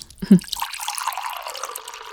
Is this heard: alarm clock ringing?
no